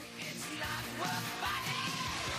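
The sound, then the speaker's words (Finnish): A high, strained backing vocal scream rises over dense, distorted rock instrumentation, sustained and loud within a thick band mix. “Tuo korkea huuto, mikä tulee sieltä.”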